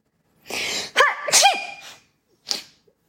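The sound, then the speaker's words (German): A loud, explosive sneeze echoing through corridors, with a sharp breathy burst and a voiced, wavering tail, followed after a short pause by a brief, quieter sniff. “Halt erneut durch die Gänge, diesmal gefolgt von einem Schniefen.”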